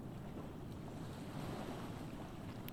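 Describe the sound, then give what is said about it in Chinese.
Ocean waves wash steadily in a continuous, low rumbling surf, mixed with a soft rush of warm sea wind, with no voices present. “让海浪的声音和温暖的海风带走你身上最后一丝的紧绷跟紧张”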